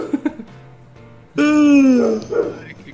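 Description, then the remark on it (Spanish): A dog lets out one loud, drawn-out bark that slides down in pitch, after a quieter stretch with faint background voices. “qué, perro tan potente. Me pregunto de quién será ese perro.”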